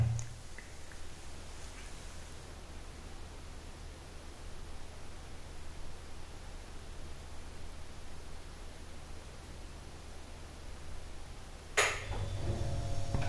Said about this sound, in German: Das war der Kühlschrank. Ja, den würde man natürlich bei so einer Trockenaufnahme nicht mehr hören.